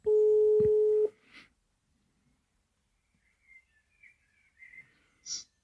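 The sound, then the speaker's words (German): A telephone ringback tone on an outgoing call to someone's mother: one loud, steady, mid-pitched beep lasting about a second, followed by near silence with a few faint, high chirps. “okay, dann rufen wir mal deine Mutter an.”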